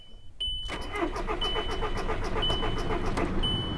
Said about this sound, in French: Ah bah oui, la voiture elle démarre pas. en fait, elle a pas roulé depuis tellement longtemps qu'elle redémarre plus.